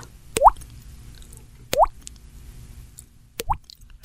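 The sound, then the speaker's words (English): Three wet, plopping drips made by a woman's voice imitating a leaky faucet as a sound effect, evenly spaced about a second and a half apart, fairly loud against a quiet background. “Tell me that doesn't sound like huh? a leaking faucet.”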